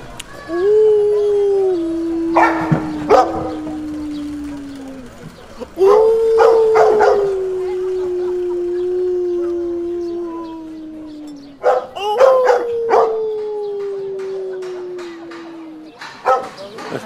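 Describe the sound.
A person imitates their own dog howling, giving three long, drawn-out howls of about five seconds each, every one sliding slowly downward in pitch, loud, with brief clicky breaths between them.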